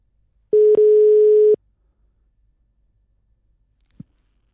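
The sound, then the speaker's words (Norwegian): A single steady ringback tone of about one second sounds on an outgoing phone line, followed by silence and a faint click, with no one talking. “Vi slår på tråden, vi.”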